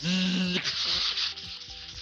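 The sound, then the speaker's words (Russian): A voice mimics crackly telephone-line static from an answered call with an unknown caller, for about two seconds: a buzzing hum into a steady loud hiss, broken by rough scratchy crackles, with no words. “кто-то позвонил, но ты не знаешь кто, и ничего кроме помех не слышно.”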